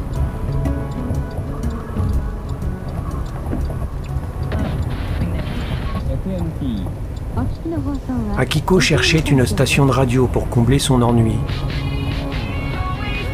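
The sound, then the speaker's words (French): A steady low engine hum drones throughout, like riding in a moving car, while a voice speaks over it and a radio song broken up by advertisements and American slogans rises near the end. “Le ronronnement du moteur couvrait la mélodie d'une chanson entrecoupée d'annonces publicitaires et de slogans américains.”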